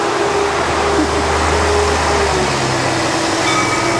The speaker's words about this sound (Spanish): La basura. Siempre tenemos un invitado, la verdad. Hoy fue el camión de la basura. Ajá. Bum, bum, dice.